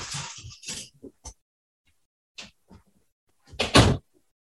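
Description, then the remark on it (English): A dog, usually silent, scuffles and snorts in short, grunting bursts, then after a pause a door is shut with a loud, heavy thud near the end as the dog is locked out. “My dog, who usually makes no noise at all, decided he was going to go nuts in here. So now he has been locked out.”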